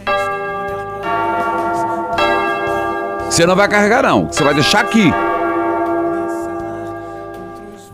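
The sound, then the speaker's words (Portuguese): A bell rung by a sacristan rings out with rich, sustained metallic tones, struck a few times in the opening seconds and left to hum and fade, while a person briefly speaks over the ringing. “Toca o sino sacristão.”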